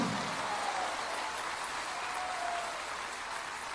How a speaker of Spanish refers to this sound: Si lo cree, dele un aplauso de gloria a Dios. Dios se mueve en medio nuestro aquí.